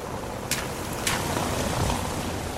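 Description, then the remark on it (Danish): Light rain, nearly stopped, patters steadily outdoors at Stortorv square in Rønne on Bornholm, Denmark: a soft continuous hiss with a couple of brief louder splashes or drips standing out near the start. No one speaks. “Jeg er taget til Stortorv i Rønne, og regnen er næsten stoppet, så jeg håber, at jeg kan komme i kontakt med nogle Bornholmer og høre, hvad de tænker om hele situationen.”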